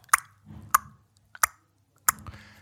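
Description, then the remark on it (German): A voice imitates a metronome with four crisp mouth clicks at a steady, even pace, each sharp and close, separated by brief pauses with faint breathy murmur. “Also während das Metronom macht,”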